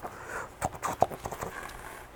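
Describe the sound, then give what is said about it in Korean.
Quick, rhythmic running footsteps of a wolf hurrying along from afar patter along, several sharp thuds in rapid succession with one louder hit near the middle, without any voices. “버터 만들 때, 버터 만들 때 쓸 커다란 통을 하나 사고 집으로 가려는데 멀리서 늑대가 부랴부랴 뛰어오는 거 보였어요.”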